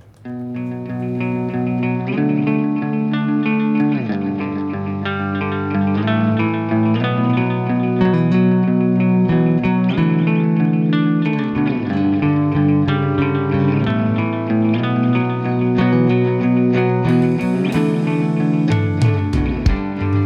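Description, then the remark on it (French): A band, finalists of the Plein Champ band contest of La Mamiselle, plays its track: a steady groove-driven rock track with dense, effect-heavy guitars, distorted and chorused tones, a solid bass line and drums, loud and continuous throughout with no talking. “Allez, on découvre …, les derniers finalistes du tremplin plein champ de la Mamiselle, qui seront sur la scène de la Mamiselle ce samedi.”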